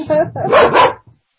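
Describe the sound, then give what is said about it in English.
A dog named Roxy barks in a quick burst of three loud, yappy barks, then a softer final yip trails off into silence. “now Roxy's barking at me.”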